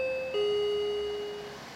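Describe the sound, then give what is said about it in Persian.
An apartment intercom rings with a clear electronic two-note chime, a higher tone dropping to a lower sustained one that slowly fades, heard alone with no talking. “آیفون رو بر نمیداره”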